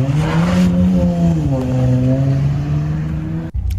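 A car engine revs loudly and steadily in front of the house, its droning pitch rising and holding as it accelerates, then cutting off abruptly near the end.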